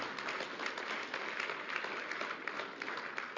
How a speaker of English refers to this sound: Would you give them a round of applause for just being here?